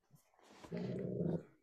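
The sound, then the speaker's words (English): A female Afghan hound named Wanda lets out a single low, rumbling growl, loud and steady for under a second, preceded by faint shuffling noises. “Hello, Afghan hound.”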